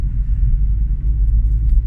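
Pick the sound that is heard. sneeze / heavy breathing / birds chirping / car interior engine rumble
car interior engine rumble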